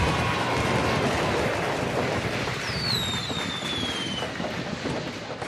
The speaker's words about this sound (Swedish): Ja, fyrverkerier och så. Yeah bom, bom, bom, bom, bom, bom,